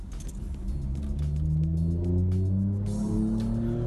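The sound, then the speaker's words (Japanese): Steady low engine rumble of a car driven by one person alone, heard from inside the cabin as Marine Tower comes into view, with the motor's hum rising in pitch as it accelerates. No one speaks. “これもうこんな大声で喋りながら 一人で大声で喋りながら運転することないし マリンタワーが見えてきましたね”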